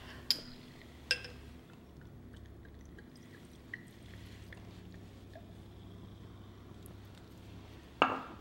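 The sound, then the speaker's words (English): Glasses of whiskey and rosé clink together in a toast: two quick bright taps near the start, then a louder ringing clink after a long pause, over a low steady hum with no talking. “Cheers, my man. Salute.”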